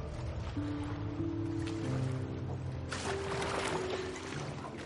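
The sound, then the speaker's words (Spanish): Rowing a boat on a river in fog with sun rays coming through: a steady wash of water noise with swells of splashing, over low sustained droning tones that shift pitch a few times. “Mallory rema en el bote.”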